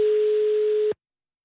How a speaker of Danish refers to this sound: Nummer, du ringer til, er optaget.